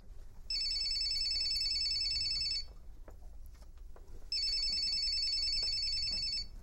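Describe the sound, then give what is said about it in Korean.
A mobile phone ringtone resembling the bell of an old black telephone, set for calls from Heo Gu-dong, rings in two loud, trilling bursts of about two seconds each, separated by a short pause, with no one speaking. “지란의 핸드폰이 요란하게 울렸다. 오래전 검은색 전화기의 벨소리와 닮은 소리였다.”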